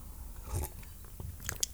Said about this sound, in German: Nämlich nehme ich erstmal einen Schluck Wasser, bevor ich jetzt hier die nächste halbe Stunde